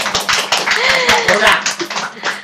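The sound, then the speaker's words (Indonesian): A burst of hand clapping from a small group celebrating a third-place win at the Festival Film Mahasiswa Indonesia, quick irregular claps running steadily for a couple of seconds, with voices cheering and talking over it. “tepuk tangan dulu berba”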